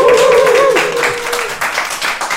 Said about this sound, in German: Richtig, also persönlicher Applaus bei der 2 ja.